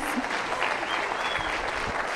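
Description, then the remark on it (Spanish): Steady applause from an audience for the speaker's father, a dense wash of many hands clapping at once, fairly loud and continuous throughout with no voices standing out. “como mi papá, así sí, hace bastantillos, pero igual, se merece un aplauso, por favor, un aplauso a mi papá, gracias.”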